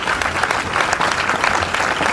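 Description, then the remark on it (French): A crowd applauds steadily, a dense, even patter of many hands clapping at once, fairly loud and sustained throughout with no voices rising above it. “Ah ben écoutez, non mais normalement, il y a des, applaudissements.”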